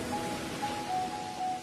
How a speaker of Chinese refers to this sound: 听，那是大海的声音。